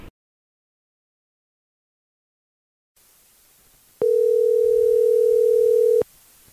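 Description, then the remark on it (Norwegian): A single steady telephone ringing tone for an outgoing call sounds for about two seconds, loud, over faint line hiss after a stretch of silence. “må bare ringe og høre?”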